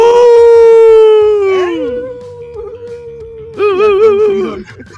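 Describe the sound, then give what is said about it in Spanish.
A person howls like a wolf, loud: one long sustained note that sags downward, then after a brief pause a second, shorter wavering howl. “Ah, no, es primo el, aullido, ¿verdad?”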